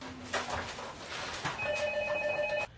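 A phone rings with a bright, steady electronic tone that sounds for about a second, preceded by a low hum and a couple of soft clicks over a hissy background.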